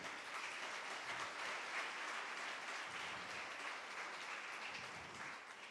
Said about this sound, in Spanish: Aplauda al Señor, apláudalo.